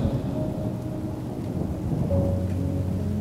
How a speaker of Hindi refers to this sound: वो बिजली कड़की घटा उमड़ी मगर कुछ पल को आंख बरसी भी मगर मौसमी बारिश की तरह